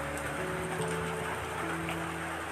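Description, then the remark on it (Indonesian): Steady rain falls in a continuous, even hiss, with a faint low electrical hum running underneath. No voices are heard. “Apa sih yang terpikir di benak kita dengan hujan?”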